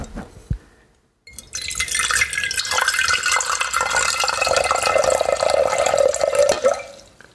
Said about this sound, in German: So, ich schenke ein. Ich hoffe, man hört es.